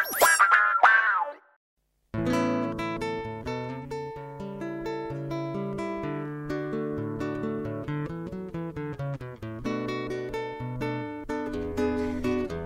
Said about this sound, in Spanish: cuando se escucha esta maravillosa guitarra que toca en nuestro Morgado, de hecho un tema que él mismo compuso